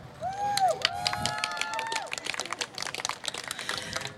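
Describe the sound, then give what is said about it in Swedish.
An audience at a live radio broadcast on Medborgarplatsen breaks into steady applause after a song, dense overlapping claps running for about four seconds, with a few high whistles and cheers rising over the clapping near the start. “En applåd!”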